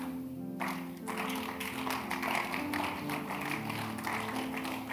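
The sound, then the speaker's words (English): A crowd claps steadily, many overlapping hand claps forming a dense, even patter that starts after a brief moment and continues without letting up, over a low steady hum. “You are clapping as if you are not convinced.”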